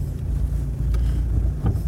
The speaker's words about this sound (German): Denn links von mir Autos und rechts von mir Autos und hinter mir Autos und alle glotzen mir in die Karre.